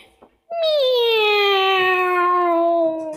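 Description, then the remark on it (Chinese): A person's voice imitates the cat Bufeng meowing and crying while searching for Aixi, with one long, drawn-out wailing meow that starts high and slowly slides lower, loud and sustained like crying, preceded by a brief soft breath. “是布风在喵喵叫，他在找艾希。他边叫边哭喊：“可怜的布风啊！”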